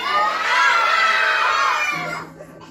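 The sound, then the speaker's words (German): A large group of children at a cinema film screening shouts and cheers together in a loud, sustained burst that echoes, then fades quickly near the end. “so klang es am Donnerstag im Passage-Kino bei einer Filmvorführung im Rahmen von Kidstock”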